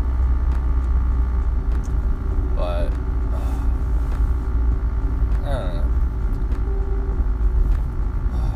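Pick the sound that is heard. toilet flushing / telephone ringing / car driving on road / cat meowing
car driving on road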